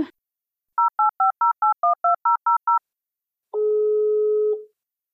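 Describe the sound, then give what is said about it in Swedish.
A quick run of ten touch-tone keypad beeps, then a single steady ringing tone of an outgoing phone call to the Stockholm city switchboard, about a second long. The sound is clear, with no talking. “då ringde jag faktiskt upp eh, den andra chefen som heter Maria Clement Sällberg och frågade”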